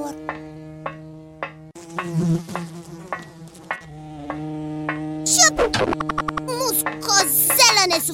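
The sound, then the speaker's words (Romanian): A fly's steady, droning buzz runs continuously through the whole clip, with chirpy voice-like sounds and brief clicks layered over it toward the end. “Ici, adu repede pliciul electric Uite o muscozelă Ia-ți-l singur”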